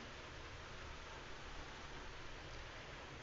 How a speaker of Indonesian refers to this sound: Sebelumnya aku minta maaf karena malam ini hujan, jadi akan berisik dengan suara hujan tapi nggak apa-apa semoga suaraku masih kedengaran ya